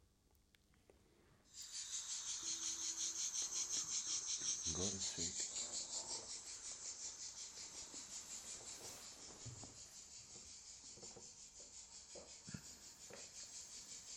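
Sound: cicadas chirping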